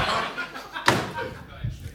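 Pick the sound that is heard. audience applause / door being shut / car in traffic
door being shut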